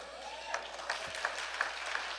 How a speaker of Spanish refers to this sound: Me quedo con los doce que aplaudieron. Son como los doce de Jesús. Aleluya. No sé si en, Morristown habrá otros doce o todos están aplaudiendo.